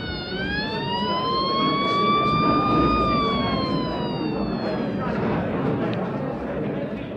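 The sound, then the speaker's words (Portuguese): A loud, steady siren wails for several seconds, its pitch rising slowly and then sliding down as it fades, over a busy background of murmuring voices and general noise; a factory siren sounding again after a break, calling the workers back to the yard. “45 minutos mais tarde, a sirene toca novamente e a piozada volta para o pátio.”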